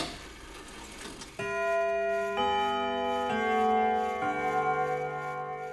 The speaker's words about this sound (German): Ich weiß nicht, ob Sie Uhren mögen, ob Sie einen Wecker auf Ihrem Nachttisch haben, ob Sie die Schlummertaste als Ihren natürlichen Feind am Morgen betrachten oder ob Sie das Ticken der Zeiger im Schlaf verfolgt.